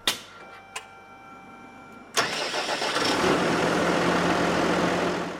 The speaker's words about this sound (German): Bauer Korbmacher schmeißt den Traktor an. Er muss aufs Feld Kartoffeln ernten.